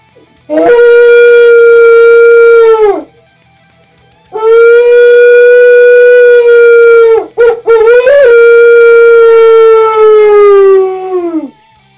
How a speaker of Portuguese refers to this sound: Eu tenho um chofar aqui, vou mostrar para vocês, mas vou tocar só um pouquinho, só para terem uma ideia, né? Gosto de imitar um lobo com esse aqui.